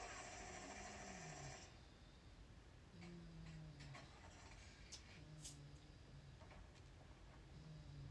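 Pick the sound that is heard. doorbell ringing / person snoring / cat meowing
person snoring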